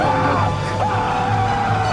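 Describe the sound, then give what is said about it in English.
A loud, sustained human scream or yell, strained and continuous for about two seconds, with a rough, harsh voice and no other talk. “Who the fuck was screaming like that?”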